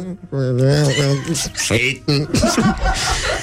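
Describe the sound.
A single close-up voice mimics a song played backwards, producing garbled, sing-song syllables with swooping, warbling pitch for a few seconds, edging into chuckles near the end.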